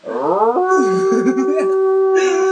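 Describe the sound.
A person's voice imitates a wolf howl, rising and then holding a long, steady wavering note for a couple of seconds, loud, with no other talking.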